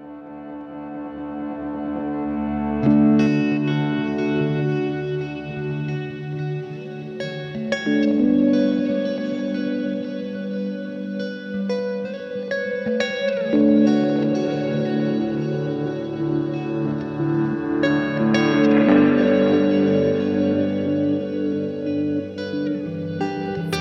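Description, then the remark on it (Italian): A song by an emerging artist plays steadily on the radio at full volume, with sustained harmonic tones, heavy effects and reverb, and a denser swell in the middle; no voices speak over it. “Amici ascoltatori, fa parte della musica emergente,”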